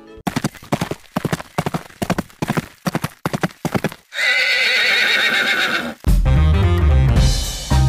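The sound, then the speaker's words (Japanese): A horse's hooves clip-clop in a steady rhythm for a few seconds, then a loud, drawn-out whinny rings out before music begins at the end, marking the start of a program. “はい、まあ、それでは始めていきましょう、はい、馬が舞うスタートです”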